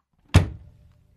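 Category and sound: vehicle, car door closing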